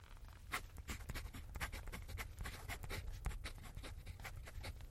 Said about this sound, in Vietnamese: Nhân vật chính tả lại giấc mơ theo mong ước của mình lên tấm giấy.